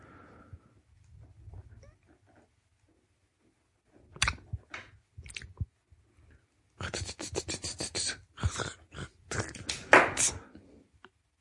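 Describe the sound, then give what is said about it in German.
Handling of a pen: bursts of small clicks, taps and scratchy rustles, sparse at first and then a denser, busier stretch of fiddling, with no one talking. “Nix, ich habe nur, ich hab äh, die Geräusche deines Stiftes bewundert.”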